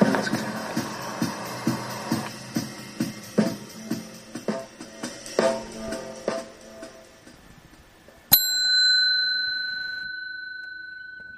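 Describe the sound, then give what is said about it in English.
A bicycle bell gives one bright ding that rings out and slowly fades, following several seconds of steady, rhythmic mechanical ticking, at Bluffers Park in Scarborough. No one speaks. “I don't think I've used the bell for uh, for a while.”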